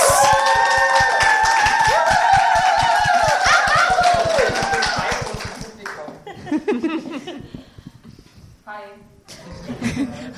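crowd, audience applause

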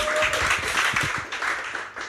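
crowd, audience round of applause

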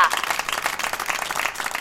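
crowd, crowd applauding

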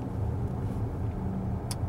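vehicle, car interior engine rumble

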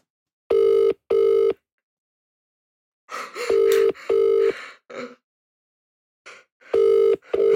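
household object, telephone ringing tone

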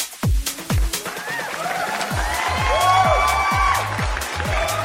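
crowd, applause and cheering

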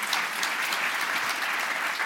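crowd, audience applause

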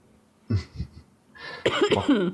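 human body sound, coughing

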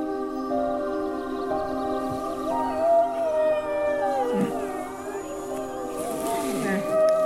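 animal, sled dogs howling

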